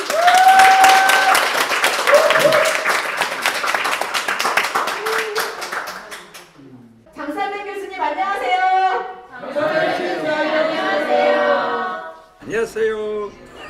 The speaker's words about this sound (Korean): 큰 박수를 모시도록 할까요?